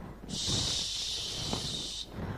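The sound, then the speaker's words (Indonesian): A voice imitates strong rushing wind with one long, steady hissing shhh, fairly loud, lasting nearly two seconds before cutting off, with faint low murmurs beneath. “Shhh. Angin bertiup kencang bola jadi berputar-putar.”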